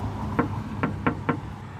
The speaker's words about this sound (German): Oh, ich sehe schon wen durch die, durch die Scheibe. Ich klopf mal.